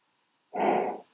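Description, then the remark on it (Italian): A single short chat notification sound, about half a second long, signals a message written in a chat app. It pops up clearly after a moment of silence, with no one talking over it. “Quindi si sente anche un suono, apro e vedo i messaggi.”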